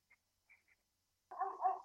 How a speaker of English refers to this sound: my neighbor has a dog, and I didn't know this. You're welcome. And it's a German Shepherd. I might, I might steal it.